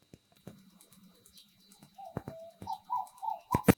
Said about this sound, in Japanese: これ聞こえますかねいやこの今6月の後半になってきたんですけどこの1ヶ月ぐらいかな鳥の鳴き声で目が覚めるっていうそういう季節になってきましたね。聞こえるでしょこの鳥の鳴き声しかしないみたいな時間帯ってすごくいいんですよね。